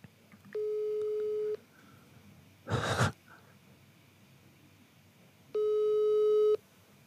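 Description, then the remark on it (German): A phone ringback tone over a speakerphone during an unanswered call: two steady one-second electronic tones about five seconds apart, with a short burst of breathy noise between them and no talking. “ich rufe ihn okay. jetzt mal an, warte mal”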